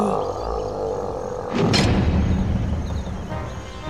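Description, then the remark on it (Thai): A deep, growling roar of an angry stone mountain demon swells into a loud, sustained rumble after a sudden burst of noise, with turbulent storm wind churning in a cave underneath throughout. “ปีศาจภูเขาหินได้เริ่มโมโหได้แผ่เสียงร้องคำรามก่อให้เกิดพายุปั่นป่วนในพื้ถ้ำแล้วก็ได้หุบปากลงทันที”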